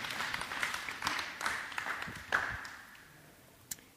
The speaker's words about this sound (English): These girls need a huge round of applause because they had no clue what they were going to have to do.